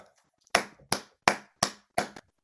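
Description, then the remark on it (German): Five sharp hand claps in a steady, even rhythm, each crisp and bright with a quick decay, like one person applauding on their own with no talking. “Applaus!”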